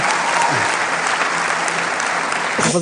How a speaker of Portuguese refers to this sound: Sim? Sim? ah, é para aplaudir. Sim, sim.